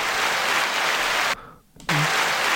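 A crowd claps in a dense, loud burst of applause that cuts off abruptly for a moment, then resumes just as strongly with no speech over it.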